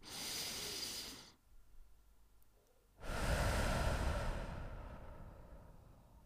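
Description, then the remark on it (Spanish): Someone draws in a long, airy breath, pauses a moment in near silence, then lets it out in a slower, louder, rushing exhale. No one speaks. “Por lo tanto, cualquier momento de tu día que vos antes de realizar una acción, en cualquier momento de tu día, para, toma una respiración profunda.”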